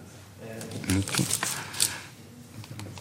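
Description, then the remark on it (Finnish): Thin Japanese tissue paper rustles and crinkles as it is carefully folded like a sandwich over both sides of a torn page, with a few soft, brief crackles and taps, while a faint voice murmurs in the background. “Taitan silkkipaperin voileivän tavoin kahden puolen rikkinäistä sivua. Varovasti. Paperi on japanilaista.”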